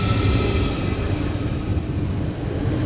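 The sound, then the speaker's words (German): A newer ICE high-speed train passes through a station, a loud, steady rumble with a faint high whine riding on top, holding constant for the whole few seconds with no voices. “Mhm muss sagen, das scheint auch wirklich ein neuerer ICE zu sein.”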